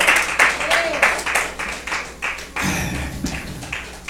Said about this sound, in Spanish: No, de palmas al Señor.